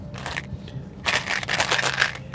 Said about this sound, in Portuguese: Por exemplo, eu tô com esse chiclete aqui. Deixa eu pegar. Da Mentos.